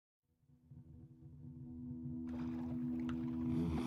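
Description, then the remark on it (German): A low, drawn-out moaning call like a bull's moo swells steadily louder, with a rougher, breathier noise washing in over it toward the end. No one speaks. “Hast du das eben gehört? Es klang wie das Mohn eines Stieres, aber jämmerlicher, kehliger.”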